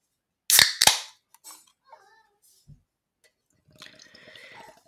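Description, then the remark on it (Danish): A Harbo beer can is cracked open with two sharp metallic snaps, followed by a soft gurgle, a small clink, and a fizzy hiss of carbonation at the end. No one speaks. “Jeg skal drikke en øl. Og hvilken øl drikker man, når man er alene? En Harbo dåseøl, naturligvis.”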